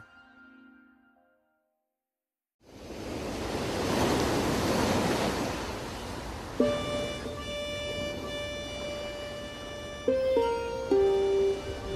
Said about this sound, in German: Die Nordsee an der Westküste von Schleswig-Holstein. Meistens plätschern die Wellen hier eher ruhig und gemächlich an die Strände und gegen die Deiche.